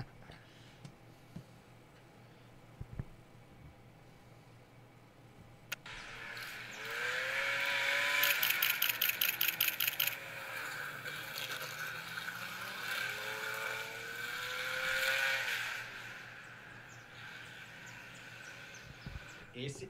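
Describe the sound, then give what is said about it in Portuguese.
After several seconds of near quiet, a loud racing car engine bursts in as driver Pedro Henrique de Oliveira accelerates in a championship, its pitch climbing as it accelerates hard, rising again before easing off toward the end. “O Pedrão acelerando.”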